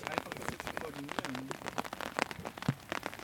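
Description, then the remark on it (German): Steady rain patters on a field in a dense, continuous spray of drops, with a brief murmur of a voice partway through. “Weil es regnet!”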